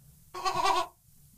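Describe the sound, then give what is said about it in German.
A person imitates a goat with a single wavering, nasal bleat lasting about half a second, fairly loud, with a quiet pause before and after. “wie gut sie Ziegisch konnten”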